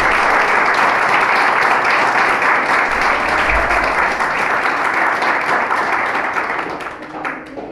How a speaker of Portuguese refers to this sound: Aplauda o Senhor Jesus, pode aplaudir. Glória a Deus.